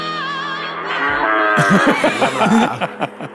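Cows moo loudly and close by: one long, drawn-out bellow, then several overlapping moos and grunts that keep coming in quick succession.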